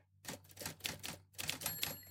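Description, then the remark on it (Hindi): Rapid typewriter keystrokes clatter in quick bursts as a man sits working at a typewriter in his room, with a bright metallic ring near the end, fairly loud with no voices. “फिर मैंने अपने बाहर के कपड़े बदले और टाइपराइटर के सामने काम करने बैठ गया”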